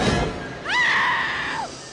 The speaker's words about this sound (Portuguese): Toda vez que vocês ouvirem esse barulho de grito aqui, ó é sinal de que a entrevista com um deles vai começar.